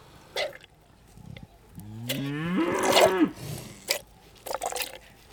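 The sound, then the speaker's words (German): Cows being milked: one long, rising moo fills the middle, with short wet squirting and splashing bursts before and after it, and no voices. “Gerade werden hier die Kühe gemolken.”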